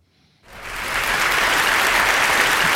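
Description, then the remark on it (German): Crowd applause bursts in after a brief quiet moment and swells into a dense, sustained wash of clapping that stays loud and steady, with no voices over it. “Dein Applaus, Kevin. Dein Applaus.”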